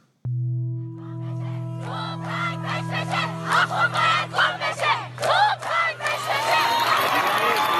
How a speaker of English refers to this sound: In scenes unprecedented in the Islamic Republic, a woman cuts her hair as the crowd cheers her on – chanting death to the dictator.